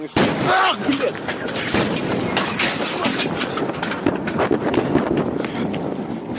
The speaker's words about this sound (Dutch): meteoriet van ongeveer 10 eh, meter volgens mij, die boven Chelyabinsk, die naam kennen we misschien nog wel, vijf jaar geleden door de geluidsbarrière ging